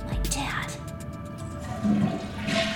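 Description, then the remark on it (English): A toilet flushes in a bathroom off a hallway after use by a security guard, a steady rush of swirling water lasting a few seconds, moderately loud and slightly muffled behind a door, with faint voices underneath. “How long could he have been in the bathroom?”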